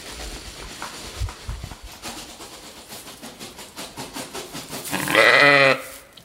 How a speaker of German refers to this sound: Jetzt gucken wir mal, ob wir das Schaf zum Mähen bringen. Zum, wie heißt es denn? Mähen? Soll mähen. Blöken, ja. blöken, blöken. Wer blökt denn jetzt?